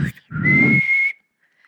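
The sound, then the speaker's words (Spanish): A person whistles one steady, fairly loud note held for under a second as a flirting signal to someone they like, with a breathy low rumble underneath at the start, then it cuts off into near silence. “Si te gustaba a alguien, le silbabas, hacías como.”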